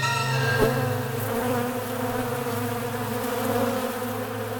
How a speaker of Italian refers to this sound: Sì, perché non stai tenendo una spugna, ma un alveare di api furiose e letali.